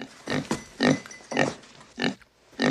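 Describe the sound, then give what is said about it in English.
A pig grunts repeatedly in short, rough bursts, about five snorting grunts in under three seconds, fairly loud with brief pauses between them, as it comes in at a door. “And we hear some strange noises at the door, and in comes a pig.”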